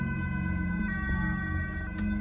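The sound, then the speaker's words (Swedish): Continuous, droning police siren tones hang over the area for a couple of seconds as reinforcements arrive, layered and echoing, at a steady, moderately loud level with no voices. “Eko från politisirenene hörs över området när förstärkningarna ankommer.”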